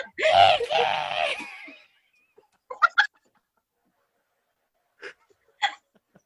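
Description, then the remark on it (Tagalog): A loud scream bursts out for nearly two seconds, then cuts off, followed by a few brief, faint vocal squeaks scattered across otherwise quiet stretches. “gusto ko talaga yung sigaw.”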